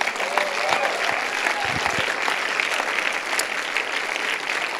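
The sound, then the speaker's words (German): Sustained applause from a church audience encouraging a person who has turned to God, with steady clapping filling about five seconds, mixed with scattered cheers and a few whistle-like calls rising above the dense, even roar. “Das heißt, auch wir können dieser Person durch Applaus, durch Jubeln oder was auch immer einen Zuspruch geben.”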